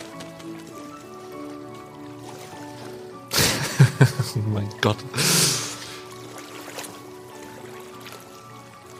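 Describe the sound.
Waves lap and slosh against a boat hull in the dark, in a short burst of splashy surges midway, over a steady low tonal drone, with a brief spoken exclamation.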